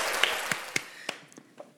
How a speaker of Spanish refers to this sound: Saludos para todos los taiperos. Fuerte el aplauso, señoras y señores, para todos los taiperos.